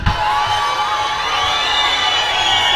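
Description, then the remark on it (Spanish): A crowd cheers and shouts steadily for a few seconds at the start of a party featuring a DJ mixing face-off, a loud, dense roar of overlapping voices with high whoops and yells riding on top, sustained without pause. “Quiero que arméis un poco de jaleo.”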